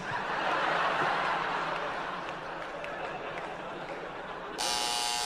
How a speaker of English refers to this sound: Yes. Yes, it worked. My buzzer worked.